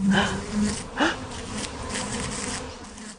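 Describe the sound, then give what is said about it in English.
A drone (male) honeybee, a really big bee, buzzes with a steady low droning hum that swells and wavers in pitch for a few seconds with no one speaking. “so they're called drones because they make that loud droning sound.”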